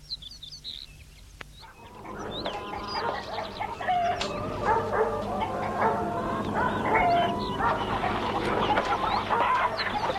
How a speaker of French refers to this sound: Il la suit, cour de ferme, avec des poules.